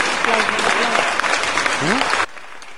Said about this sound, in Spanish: Aplausos, aplausos. Ah, aplausos.